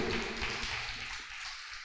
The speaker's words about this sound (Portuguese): Na salva de palmas ao Senhor Jesus. Aleluia.